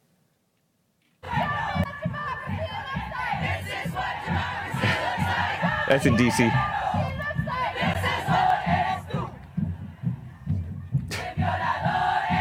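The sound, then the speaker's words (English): A large protest crowd at a women's march chants against patriarchy in loud, rhythmic unison up close, voices rising and falling in repeated shouted phrases, with a brief spoken remark near the start after a moment of silence. “I have a little bit more that's a little bit closer up, and they're c- complaining about patriarchy.”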